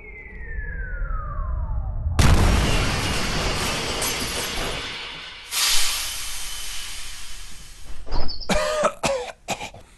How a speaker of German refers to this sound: Noch drei Kilometer bis Bodenkontakt. Na, ich meine Aufprall.